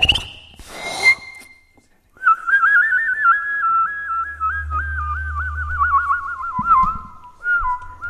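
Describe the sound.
A person whistles a warbling, trilling birdlike song, imitating a goldfinch and making two sounds at once, in a steady run of rapid wavering notes, fairly loud, with a low hum and breathy sounds underneath.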